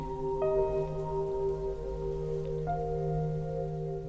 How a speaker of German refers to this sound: Der Wind weht Blätter vom Baum und der Regen prasselt stark, sodass das kleine Bächlein immer mehr mit Wasser gefüllt wird.